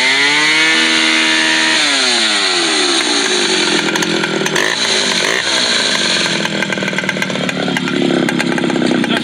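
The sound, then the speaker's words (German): A chainsaw roars loudly and continuously during a tree-felling operation, its engine pitch climbing and dropping as it bites into wood, with the strained whine shifting over several seconds of cutting. “Säge Kommando ist da den ganzen Tag am Werk gewesen, und zwar vom Montag bis am Samstag”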